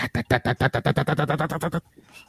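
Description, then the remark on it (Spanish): A loud helicopter-passing sound effect: rapid rhythmic rotor chopping, roughly seven beats a second, holding steady for under two seconds before cutting off abruptly into near silence. “Primero que nada, mándenme mi paso del helicóptero, pero bien fuerte.”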